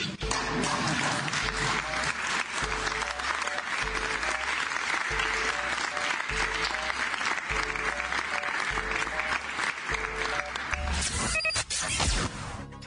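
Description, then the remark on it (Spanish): Sustained applause from a large crowd, steady and dense for the whole stretch, with a low rhythmic musical backing underneath and a brief surge of louder clapping near the end. “¿a poco la prensa no aplaude?”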